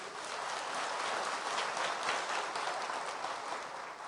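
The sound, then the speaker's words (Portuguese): A church audience applauding together in praise of Jesus, a dense, steady wash of many hands clapping that holds at an even level throughout, with no voices standing out. “Aplauda o Senhor Jesus.”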